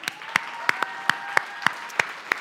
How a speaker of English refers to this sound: In fact, if this is your very first time here, this round of applause is for you.